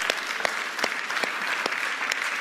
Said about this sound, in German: Geben wir doch mal unserem Putzteam, unserem Hausmeister einen Applaus. Das ist großartig.